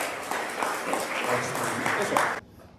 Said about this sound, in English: a round of applause? That's not enough.